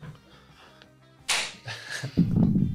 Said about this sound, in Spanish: has traído la claqueta. La tengo siempre conmigo. Pues dale caña.